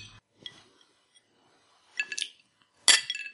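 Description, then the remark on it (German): Glasses clink together in a toast, two bright ringing contacts about a second apart, the second louder with a shimmering ring, plus a faint earlier tap; no one speaks. “Dem Ding. Prost. Prost.”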